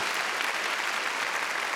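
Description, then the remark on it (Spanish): An audience at a church service claps loudly and steadily in praise to God, a dense wash of many hands with no individual claps standing out and no voices rising above it. “Aprendémosle palmas fuertes a nuestro Dios.”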